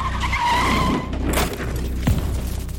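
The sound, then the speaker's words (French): Tires screech in a loud, sustained squeal as a bus carrying Frida Kahlo collides with a train of the Chochimilco line on 17 September 1925; a sudden crashing impact bursts out, followed by a heavy thud and rumbling engine noise. No voices are present. “Peu après, le bus est entré en collision avec un train de la ligne Chochimilco.”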